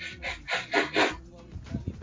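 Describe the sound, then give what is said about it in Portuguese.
A few quick, forceful sniffs in a row, breathy, as a person with enormous nostrils loudly snorts air in through the nose, with faint low murmuring underneath. “Eu dou aquela fungada, né? Porque eu tenho narinas enormes.”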